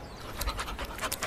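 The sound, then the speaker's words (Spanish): A dog named Toby pants rapidly and rhythmically while being told to catch a ball, a run of short breathy huffs repeating through the brief moment with no voices present. “Ese es mi perro.”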